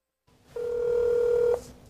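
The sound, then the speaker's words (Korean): A single steady electronic telephone ring tone sounds for about a second, clear, then cuts off, leaving faint background hiss and no voices. It is the ring of an automated campaign phone call from presidential candidate Heo Kyung-young of the National Revolutionary Party in South Korea. “안 받아본 분이 없을 것 같은데요, 이 전화가.”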